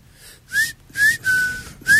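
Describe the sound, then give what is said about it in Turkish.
Four clear whistled notes coming from outside a window in a steady sequence, each a sharp tone with a slight upward glide, the third held longer; moderately loud and alone, with faint low background hum. “Pencereyi kapat ya dışarıdan bir ıslık geliyor.”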